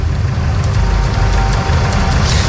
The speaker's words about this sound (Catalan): Sí, sí, efectivament, com podeu sentir, els tractors fa uns minuts tot just acaben d'arrencar els motors i estan preparant per marxar aquesta llarga jornada cap a Barcelona.